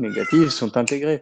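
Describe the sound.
A domestic cat meows a couple of times close by, its drawn-out cries overlapping with a person talking steadily in the foreground.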